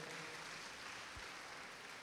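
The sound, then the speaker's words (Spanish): An audience applauds the Lord in the afternoon, a steady wash of many hands clapping that holds evenly throughout, sounding soft, with no one speaking over it. “¿Por qué no le da un aplauso al Señor esta tarde, por favor?”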